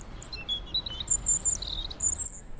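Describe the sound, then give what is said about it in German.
A European robin sings on a balcony in Cologne, about half a meter away: thin, high, warbling phrases in quick bursts of trills and whistles, fairly soft over a low background rumble, with no voices. “Da war ein Rotkehlchen direkt hier vor meinem.”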